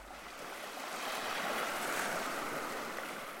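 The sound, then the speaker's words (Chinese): Ocean waves wash steadily onto a sandy beach on a sunny day, a broad hissing roar that swells slightly and stays loud throughout, with no voices. “来来去去的浪涛声中，我突然听到有人在尖叫”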